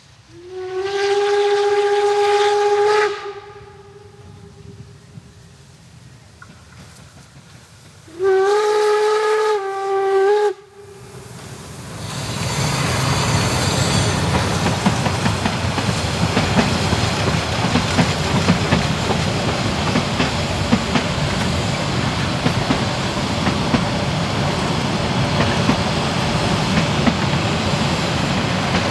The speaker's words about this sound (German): Wir stehen jetzt am Bahnsteig des kleinen Örtchens Sorge und hören die Einfahrt des Planzuges. Gezogen wird er von der Lok 99 7237.